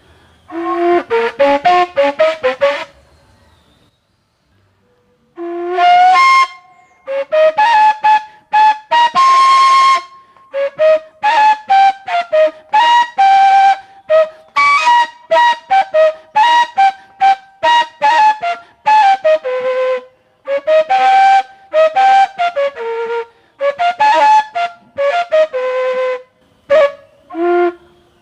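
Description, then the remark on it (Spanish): A gaita flute that is still being made plays alone in short, breathy bursts of shifting pitch as it is tested until it gives its tone, stopping and starting repeatedly with one longer pause near the beginning, the loud notes coming in choppy, uneven phrases. “Así sucesivamente se va haciendo la gaita hasta que dé su tono.”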